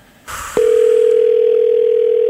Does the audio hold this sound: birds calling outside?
no